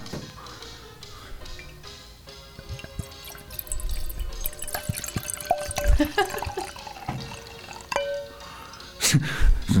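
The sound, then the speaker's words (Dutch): Wine pours and splashes into a glass, a steady trickling stream with small drips, ending in a louder gush near the end, with no talking. “overdreven wijn in zijn kluit.”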